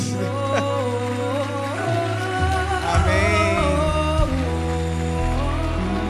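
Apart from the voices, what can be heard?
audience clapping hands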